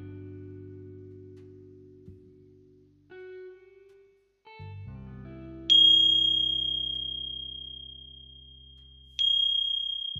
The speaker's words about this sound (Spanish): manteniendo la imagen de la montaña interior. hasta escuchar el sonido de la campana.